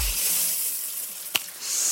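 Steady shower water hisses and sprays, with one brief splash or drip standing out partway through. No one speaks.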